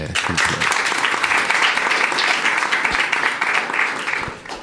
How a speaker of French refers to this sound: Merci beaucoup d'être venu et euh, vous pouvez encore l'applaudir s'il vous plaît.